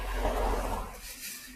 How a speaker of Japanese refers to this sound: で、まあ、ああ、車の音が、すいません。